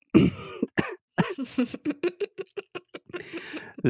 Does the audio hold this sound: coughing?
yes